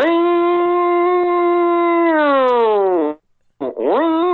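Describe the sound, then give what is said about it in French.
A person's voice imitates a long, wailing alert siren, like a big nuclear alert siren, holding a steady tone for about two seconds before sliding downward, breaking off, then starting another rising wail. “Euh, euh, au Japon, genre les trucs d'alerte euh, nucléaire, là, genre des grosses sirènes, genre tu”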